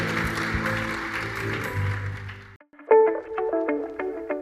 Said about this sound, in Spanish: Dale un fuerte aplauso al Señor, a su palabra.